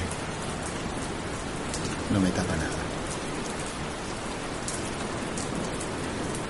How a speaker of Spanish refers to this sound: Empezó a haber un viento bastante fresco. La lluvia me pega en la cara.